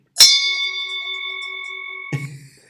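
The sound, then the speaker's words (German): A single bell is struck once, loud, its bright metallic tone ringing steadily for about two seconds before breaking off abruptly as a brief lower sound comes in. It is played as an emergency regret sound after something regrettable is said. “Das ist unser Notfallsound, den wir immer dann abspielen, wenn wir irgendwie was sagen, was wir dann irgendwie schnell bereuen”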